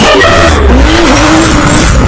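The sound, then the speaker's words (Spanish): A racing car engine roars loudly while tires skid and squeal, a rising and falling whine sweeping across the steady, dense rumble for about two seconds with no voices. “Dos caballos de fuerza y un escuadrón táctico concentrados en el poder de nuestro motor.”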